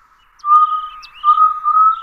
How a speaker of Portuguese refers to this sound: É o, o nome dele vem do canto, que no interior do Brasil se interpreta que ele está falando: Eu sou Jaó, eu sou Jaó